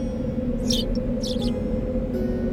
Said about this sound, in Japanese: あそこの枝に鳥さんのお家があるよ覗いてみよっかあ小鳥さんだ小鳥さん小鳥さんこんにちは何してるの